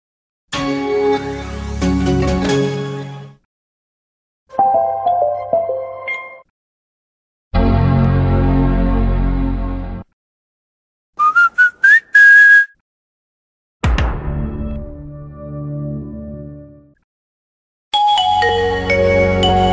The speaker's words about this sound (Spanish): que viene a continuación, que es una recopilación de algunos audiólogos de marcas muy muy reconocidas que muy seguramente les va a evocar recuerdos y van a identificar muy bien de qué marca se trata. Entonces, escuchemos.